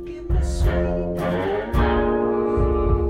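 Heavily distorted electric guitar riffing with thick sustained chords and chugging low notes, loud and steady, captured with a roomy, slightly distant ambience and no voices.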